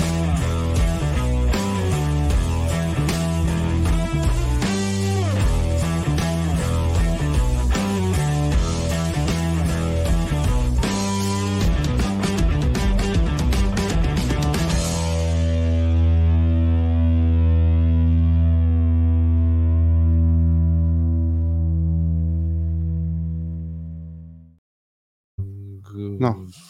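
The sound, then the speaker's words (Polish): A distorted electric guitar chugs through a fast, rhythmic riff for about fifteen seconds, then hits a final chord that rings out and slowly fades to silence. “skończył się riff gitarowy. Skończył się riff.”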